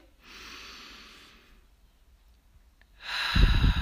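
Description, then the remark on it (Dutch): One slow, deep breath: a soft airy inhale, a short silent pause, then a louder, rushing exhale with a low rumble. No talking. “Als je deze podcast aan het luisteren bent, of je nou staat of zit, om even, even een diepe ademhaling.”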